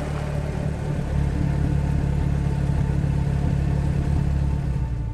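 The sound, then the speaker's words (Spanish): A car engine runs steadily at low speed while the car is parked in a parking lot, a deep continuous rumble, with a slight rise in intensity after the first second as it maneuvers slowly. “Aparcó el auto en la playa de estacionamiento.”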